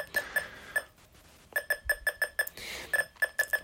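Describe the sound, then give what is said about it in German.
Short electronic beeps from an obstacle detector repeat at a changing pace, growing faster or slower with the distance to the obstacle, a wall or shelf, as the user turns: a few spaced chirps, a pause, then quicker runs of beeps, clear with no talking. “Ihr hört schon, die Tonsignale werden je nach Abstand des Hindernisses ähm, langsamer oder schneller.”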